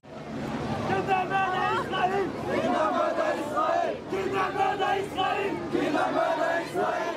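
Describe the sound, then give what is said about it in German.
A large crowd of pro-Palestinian demonstrators chants the slogan "Kindermörder Israel" (child murderer Israel) in unison, loud and rhythmic, with repeated shouted phrases rising and falling over a dense background of voices. “Pro-palästinensische Demonstranten rufen Kindermörder Israel.”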